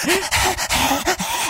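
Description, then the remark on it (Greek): On the Morning Zoo radio show, a person imitates a dog panting as a dog's way of answering yes, with quick, loud, breathy huffs repeating in a steady rhythm, no words spoken. “Άμα κάνει έτσι σημαίνει ναι.”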